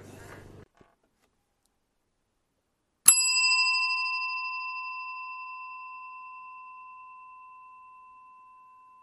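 A single bell is struck once, giving a sharp metallic strike that blooms into a clear, bright tone and rings on, slowly fading for several seconds. A brief low rumble precedes it.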